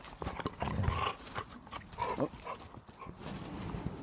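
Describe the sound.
A dog named Balu shuffles around and breathes in quick, noisy bursts, with rustling movement throughout and a brief exclamation from a person early on.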